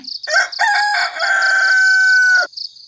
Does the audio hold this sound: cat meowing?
no